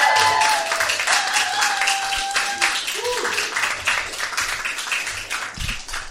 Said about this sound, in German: Ein fetten donnernden Applaus für Tarek Tespi!